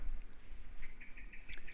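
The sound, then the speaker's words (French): A common blackbird sings quietly, with a short run of soft, repeated chirping notes and one brighter, sharper call near the end. The background is otherwise calm, with no voices. “Et on va commencer alors que le merle noir m'accompagne.”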